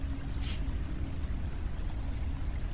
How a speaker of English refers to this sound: The familiar sounds of the sewers.